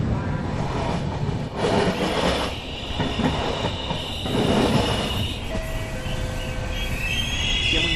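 A train rolls steadily through Roma Termini station in Rome with a loud, continuous rumble and rhythmic rattling of the cars, and thin metallic wheel squeals rise toward the end. No one speaks.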